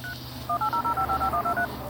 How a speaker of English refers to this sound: You dial the number.